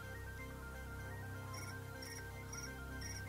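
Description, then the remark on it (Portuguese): Crickets chirp in short, evenly spaced bursts, four in quick succession, faint and high-pitched over a low, steady background hum, with no one talking. “Tá ouvindo os grilos aí, Valdinei?”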